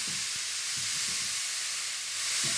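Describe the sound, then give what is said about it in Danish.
A steady, bright sizzle of mandarin juice bubbling and reducing in a hot pan, continuous hiss throughout with a few soft low knocks underneath, no voices. “Og imens at citrussaften den koger ind i, i, øh, i emnet her, så kommer jeg lige en, en klat creme fraiche på.”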